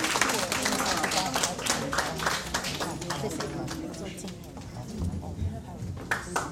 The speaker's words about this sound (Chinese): 来，也是我们掌声谢谢我们的经理，还有我们的顾问。